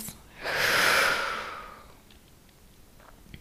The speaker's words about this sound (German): Lass uns nochmal ganz kurz gemeinsam einatmen. Und wir atmen aus.